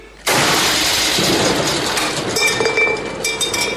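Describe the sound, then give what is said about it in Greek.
A cannon fires on its second try with a sudden, loud burst that opens into a broad, sustained roar and hiss, holding for about three seconds with faint metallic rattles in the tail. “Εδώ είναι τελικά το κανόνι που τα κατάφερε.”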